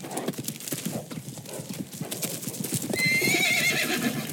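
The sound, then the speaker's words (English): Horses' hooves clip-clop in a quick, steady rhythm throughout as a posse rides up to old Thingamus Pass to intercept a train, and a high, wavering whinny rises over the galloping near the end. “Oh, the posse rode up to old Thingamus Pass to intercept the train.”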